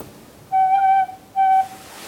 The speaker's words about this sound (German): die ist jetzt nicht historisch, die habe ich jetzt so gestimmt, wirklich wie so eine Tin Whistle, also wie eine moderne Flöte, die man in der Folkmusik in Irland und Schottland benutzt oder in, in, in Britannien. Und ähm, die klingt ganz anders.